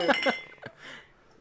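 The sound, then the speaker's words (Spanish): Glasses clink together in a toast: two quick, bright, ringing taps, followed by a softer knock and a fading shimmer against quiet. “Bueno, pues salud, ¿no? Salud.”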